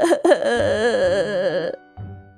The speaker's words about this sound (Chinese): 奶奶听见阿良在哭，急忙从后院赶来。